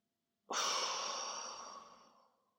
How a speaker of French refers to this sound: Et pour cela, vous allez prendre une grande inspiration par le nez en gonflant le ventre et la poitrine. Il soufflait très fort par la bouche en relâchant tout le corps.